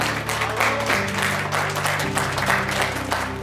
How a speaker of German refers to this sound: Einen großen Applaus für unsere drei Spieler und für unseren Trainer.